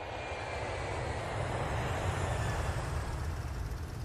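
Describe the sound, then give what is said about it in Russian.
A steady, continuous airplane engine drone fills the cramped, stuffy cabin of a plane flying from Kyiv to Simferopol in Crimea, a dense low rumble with a broad hiss on top, holding constant without breaks and with no voices. “и они, наконец, оказались в тесном и душном салоне какого-то самолета.”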